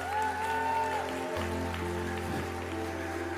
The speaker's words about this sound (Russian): Дай огромные, огромные, огромные аплодисменты.